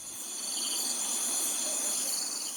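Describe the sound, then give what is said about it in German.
A steady, high-pitched chorus of insects drones and trills without pause, a dense outdoor buzz that holds at an even, moderate level throughout with no voices. “Dann hört man vielleicht auch hier in der Stadt mal wieder ein bisschen mehr das Summen der Insekten.”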